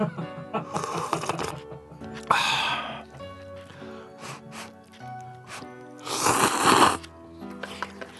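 Wet slurping of soba noodles in several loud, airy bursts with short pauses between, mixed with chewing and breathy sounds.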